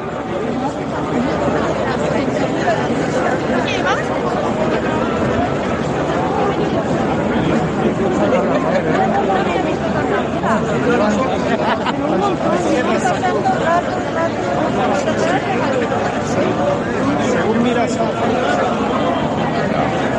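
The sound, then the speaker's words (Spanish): Dense crowd chatter from a large, lively gathering in Valladolid, Spain, with deputies from all over Spain present. Many overlapping voices merge into a steady, loud murmur with no pauses, holding at an even level throughout. “hay mucha gente, muy, muy buen ambiente.”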